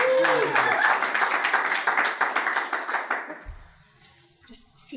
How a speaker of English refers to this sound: Sonia. Give applause to Sonia.